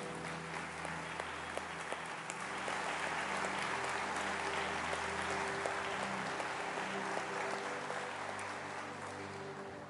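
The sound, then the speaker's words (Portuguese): A church audience applauds steadily in gratitude to the Lord for members married more than ten years, a dense wash of many hands clapping at an even, sustained loudness, with a low hum running underneath and no one speaking. “Como igreja, vamos bater uma salva de palmas em gratidão ao Senhor.”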